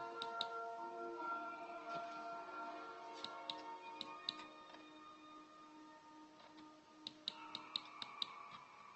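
Sharp, quick clicks from someone playing a zombie-farm clicker game in an office come in short bursts and scattered singles, clustered near the start, middle and end, over a steady tonal electronic drone with no talking.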